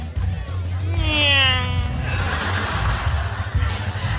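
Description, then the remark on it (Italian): A voice imitates a race car speeding past on a racetrack, illustrating the Doppler effect: a single loud "neeeow" whose pitch swoops up and then drops away over about a second, above a low steady background hum. “La stessa cosa succede con il rumore prodotto dalle vetture sulle piste automobilistiche, ma questo indizio non basta a Sheldon per far capire il significato del suo costume.”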